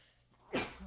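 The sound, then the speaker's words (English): A single sharp sneeze bursts out after a moment of quiet, fairly loud, with a brief breathy tail as it fades. “Bless you.”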